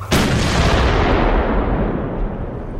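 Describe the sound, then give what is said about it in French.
A sudden, powerful explosion of a Resistance bomb attack on a train to Paris carrying German soldiers on leave, derailing it, late 1943; followed by a long, rumbling roar of debris and echo that slowly fades. Loud, with no voices present. “Un attentat de la résistance qui visait les permissionnaires allemands à bord du train.”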